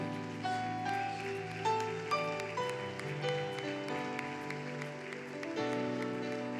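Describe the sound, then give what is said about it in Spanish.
An audience claps steadily in rhythm for the Lord during a Spanish-language worship service, the sharp crackle of many hands layered over sustained, held keyboard chords that change every couple of seconds. “Dale fuerte las palmas al Señor, dale fuerte.”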